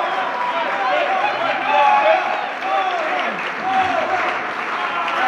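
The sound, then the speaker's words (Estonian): A dense, steady roar of a large crowd cheering and clapping at the Reform Party (Reformierakond) election night party as Kaja Kallas goes to the podium, loud, with excited voices blending into the noise and swelling slightly midway. “ja meeleolu, mis siin stuudios või vabandust, mitte stuudios, vaid Reformierakonna valimispeol on, ilmselt kostab see ka mikrofoni ja meie kuulajateni”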